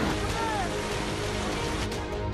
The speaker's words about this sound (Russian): Сильные дожди и обильный град в Турции.